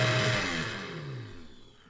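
A motorized whir like a kitchen blender runs steadily, its pitch sliding downward as it winds down over two seconds, loud with no voices.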